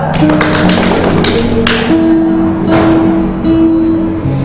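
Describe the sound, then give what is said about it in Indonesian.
Dense, crackling applause breaks out loudly over sustained music notes, strongest in the first couple of seconds before thinning into scattered claps as the music carries on. “nanti baru biar biar biar biar pemanasan gitu tepuk tangan”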